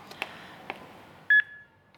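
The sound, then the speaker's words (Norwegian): A defibrillator switching on: a few soft mechanical clicks, then a single loud, clear electronic beep that rings briefly and fades into quiet. “Lyden du hører, er apparatet som er lagd for å redde liv. Hjertestarteren.”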